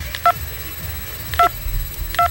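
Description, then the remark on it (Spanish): Three short, clear phone keypad beeps sound at uneven intervals, each a brief two-tone blip, as someone types on a phone to read a WhatsApp message, over a low rumbling background with no talking. “Voy a teclear a ver qué pone aquí.”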